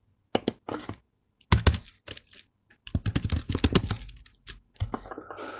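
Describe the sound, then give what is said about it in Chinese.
Typing on a computer keyboard to correct a typing error: bursts of sharp, clicky keystrokes in irregular clusters with short pauses between them, fairly quiet and with no voices over them. “啊，这个是收入，对不起啊，我刚打字打错了，收入，我把它改一下，稍等一下。”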